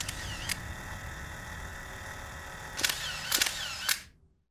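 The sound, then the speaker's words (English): A 35mm camera shutter snaps several times as someone takes photos: two quick clicks, a pause, then a cluster of crisp clicks over a faint mechanical hum, ending in silence. “The other snaps photos with a 35mm camera.”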